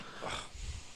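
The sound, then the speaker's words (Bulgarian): A single sneeze, a quick breathy burst of air, followed by a low rumble of breath, with no talking around it. “На здраве.”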